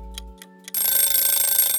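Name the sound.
kitchen timer going off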